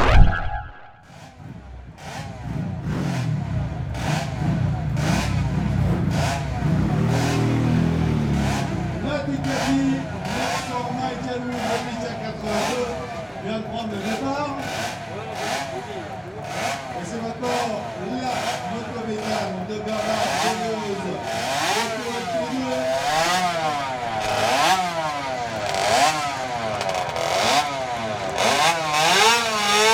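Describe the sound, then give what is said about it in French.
Racing cars accelerate hard up a hill at a yearly commemoration of the world's first automobile hill climb race, held on this spot in 1898. Engines rev and shift through gears with rising and falling whines, loud and continuous, with a crowd murmuring underneath. “à la commémoration de la première course de côte automobile du monde.”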